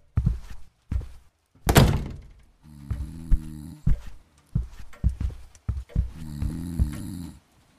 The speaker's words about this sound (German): Hört sich das für dich auch nach Schnarchen an? Ja, schon. Hm. Meinst du, der Sessel schnarcht?